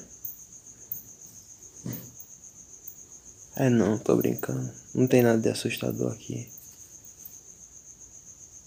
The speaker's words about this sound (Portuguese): Tudo que a gente tem são é o grilinho fazendo barulho, que eu acho que vocês estão ouvindo com certeza.